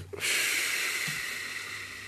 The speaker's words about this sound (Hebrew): הנשימה העיקרית של האדם היא דרך הפה ודרך האף. נשימה דרך הפה זה בחינת נפש. בחינה דרך האף זה בחינת רוח. לכן, בפה ובאף יכול להיות ארבע סוגי נשימות. יכול להיות נשימה דרך הפה, מוצאה דרך הפה.